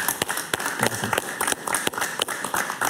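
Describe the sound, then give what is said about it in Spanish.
A crowd applauds a guest at the close of an interview, many hands clapping in a dense, continuous patter with sharp individual claps scattered throughout, fairly loud for about three seconds. “Un aplauso para Alberto Padilla.”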